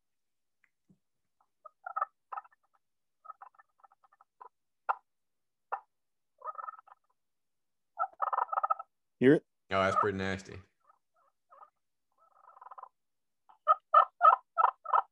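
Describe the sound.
A friction turkey call worked with a striker gives a series of short, scratchy yelps in uneven bursts, moderately loud, with a brief spoken remark partway through.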